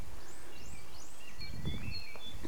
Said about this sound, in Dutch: Ik loop buiten in mijn tuin. De varkentjes knorren, de vogeltjes hoor ik.